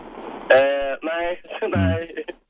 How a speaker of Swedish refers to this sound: Det brusar jävligt mycket. Har du, kör du med nedvevade rutor? Är det så varmt ute?